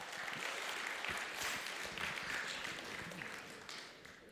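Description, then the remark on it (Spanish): An audience applauds the Lord during a worship service, a dense wash of many hands clapping at once that holds strong for several seconds before easing slightly toward the end. “Dele otro aplauso Ge al Señor.”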